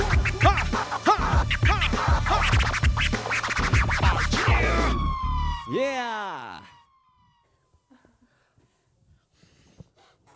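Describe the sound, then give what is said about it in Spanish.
DJ scratching on turntables: about five seconds of loud, choppy, rhythmic cuts over a beat, then a few swooping pitch sweeps up and down before the sound drops to near silence. “Amor para Tony en las tornamesas. En los escraches.”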